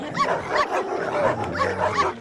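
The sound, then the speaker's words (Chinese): Several agitated dogs bark in rapid, overlapping bursts, with sharp yips and a whimper mixed in, loud and continuous throughout with no voices. “我家的孩子被那几只抓狂的狗咬伤了，那几只狗嘴里还流着口水，眼神好可怕哦。”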